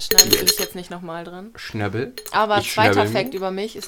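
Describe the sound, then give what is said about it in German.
A few sharp glassy clinks, like pieces of an empty beer bottle whose top has broken off knocking together, ring out briefly at the start before a person begins talking. “Das ist das Geräusch eines Hopefully zerbrochenen.”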